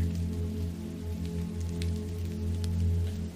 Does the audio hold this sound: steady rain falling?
yes